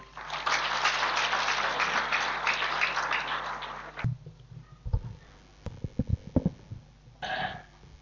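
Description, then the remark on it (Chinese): Audience applause welcoming a speaker from Shanghai to a Guan Yin Citta (Xinling Famen) sharing session, a dense steady patter of many hands clapping for about four seconds, then cutting off into scattered low thumps and brief rustling noises, with no talking. “下面让我们掌声欢迎。”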